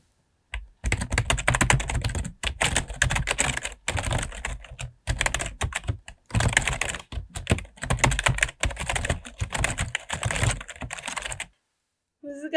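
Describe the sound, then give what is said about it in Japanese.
Rapid, continuous clacking of desktop computer keyboard keys being typed, in dense bursts with brief pauses between runs, fairly loud and with no talking. “ちょっと押す感触ももちろん好きだし、うん、このカタカタカタカタいう音も好きなんですよね、うん、私はキーボードって何であんなに気持ちいいんですか、ね、いや、そうなんですよ、うん、気持ちいいですよねキーボード気持ちいい”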